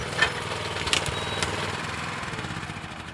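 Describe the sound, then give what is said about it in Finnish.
In a forest, the small engine of a self-built forest machine, a wagon pulled by two work horses with a grapple for loading firewood, sputters to life and settles into a steady, rumbling idle, with a couple of sharp mechanical clanks early on and no voices. “käynnistää itse kehittelemänsä metsäkoneen, vaunun, jota kaksi työhevosta vetää”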